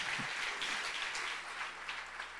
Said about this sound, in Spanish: Si ese aplauso es para Dios.